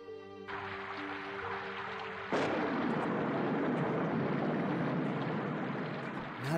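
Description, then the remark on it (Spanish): Heavy rain pours down in a dense, continuous roar during a traffic jam. A low droning hum sits underneath at first, then the downpour abruptly swells louder and stays intense to the end. “Es que está lloviendo muy fuerte y hay un trafical.”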